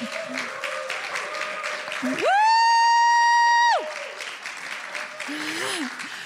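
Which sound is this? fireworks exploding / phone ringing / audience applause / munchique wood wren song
audience applause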